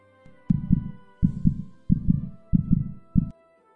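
A loud heartbeat pounds in steady lub-dub pairs, five beats in quick succession with deep, muffled thumps and a faint hum underneath, no voices.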